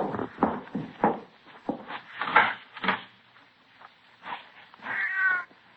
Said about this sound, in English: Well, maybe it's just a cat out in the streets now, out in the side alley, maybe, huh? Mm-hmm probably not even in the house.